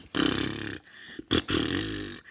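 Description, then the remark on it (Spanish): A voice imitates animals asleep in a cave beside a bear, snoring and snorting loudly: two long, rough, throaty rumbling breaths separated by a brief sharp snort, with no words spoken. “Estaban bien dormidos, uno cerca al otro, roncaban, resoplaban”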